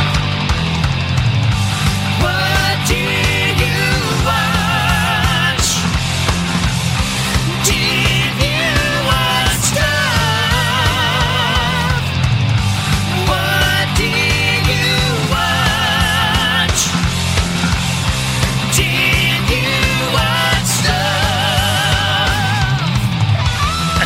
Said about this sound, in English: And it's called uh, What Did You Watch? And we got us a new theme song, sounds something like this.